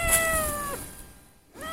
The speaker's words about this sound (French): Mon chat travaille avec moi. Là, bah, c'est une bavarde. Hein. oui. Elle s'appelle Pearl et elle est très bavarde. Elle est bavarde parce qu'elle discute.